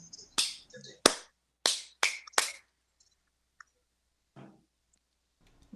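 Five sharp hand claps tap out a rhythm for radio listeners: two evenly spaced, then three quicker ones in a row, followed by a few faint rustles and near silence.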